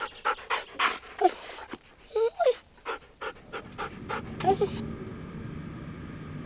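A hunting dog pants in quick, rhythmic bursts in a wood, breaking into high whimpers and short yelping cries loud enough to echo through the woods, before the sounds give way to a steady rustling background.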